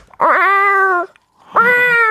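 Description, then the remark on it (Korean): A person imitates a cat, as an animal-sound impression, with two loud, drawn-out meows separated by a brief pause, with no other talking. “고양이, 고양이. 고양이. 고양이.”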